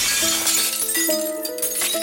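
Glass shattering and tinkling, with several bright crashes and ringing, chiming tones overlapping across two seconds. It's loud and close, with a dense hiss of falling fragments and no voices.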